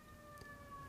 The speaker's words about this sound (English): Guys, if you hear some sorry, some sirens in the background, this is this is this is it. This is what it is. We ain't worried about it.